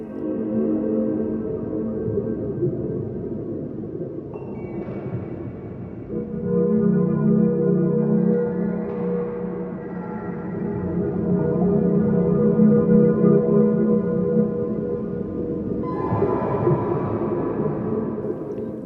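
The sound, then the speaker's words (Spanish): Electroacoustic music, The Palace of the Sea King by composer Els Marie P., the second of four 1995 illustrations for electroacoustic sounds, with dense, sustained harmonic drones layered with shifting tones, swelling in waves and brightening at moments, continuous and fairly loud with no voices. “Escuchamos The Palace of the Sea King, El Palacio del Rey del Mar, segunda de las cuatro ilustraciones de 1995 para sonidos electroacústicos de Els marie P.”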